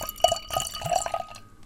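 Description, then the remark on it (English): Belgian-style beer pours into a glass, a short burst of gurgling, splashing liquid with a bright glassy ring, fading out after a second or so. “Okay, so I put some beer in the glass.”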